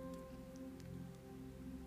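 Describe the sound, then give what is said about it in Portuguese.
Steady, quiet rainfall patters continuously on a surface, with a few brighter drops ticking through a low, constant hum underneath. No voices. “E aí você vai no meio de um dia chuvoso, não tem jeito.”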